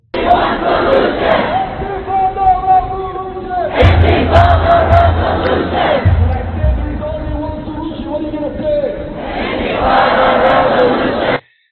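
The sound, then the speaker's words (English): A loud crowd of protesters against Israel in Toronto shouts chants in unison, repeating "Intifada revolution" in steady rhythmic bursts, with a brief pause and low thumping noise partway through before the chanting picks up again. “So that was in Toronto, and they're shouting Antifada Revolution.”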